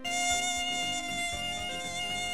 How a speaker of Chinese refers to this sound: 哎，蚊子倒是不咬人了，这回换成半睡半醒间，大批蚊子在你耳边嗡嗡嗡了。